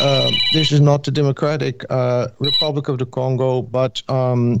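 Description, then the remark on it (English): The man's own mobile phone rings with short, high electronic tones in the background while he keeps talking over it; the ringing is fairly faint and intermittent beneath his voice. “sorry for my phone there.”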